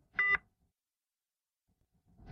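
A heart rate monitor, a machine tracking heart and pulse rate, gives short electronic beeps, two clear tones about two seconds apart, with silence between them and no voices.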